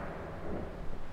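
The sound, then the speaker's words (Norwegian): A low, steady rumble of thunder rolls through the whole moment, fairly quiet, with no sharp crack and no voices. It comes from a thunderstorm with lightning and hail in Lausanne, Switzerland, in the Alps, after a fine summer day. “nå kan jeg si det at hvis du hører litt bråking i bakgrunnen, så er det rett og slett torden og lynvær.”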